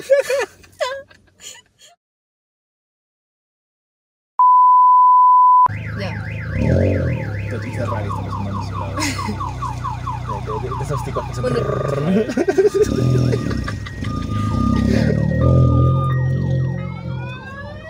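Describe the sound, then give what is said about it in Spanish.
After a short laugh and a brief spoken remark, a loud car alarm of a Chinese car sounds a steady tone at full volume, then cycles through rapid warbling sweeps, chirps and whooping wails. “Buena, con su carro chino, Ahorita suena como, lo, como, el torito. Tal, todo volumen.”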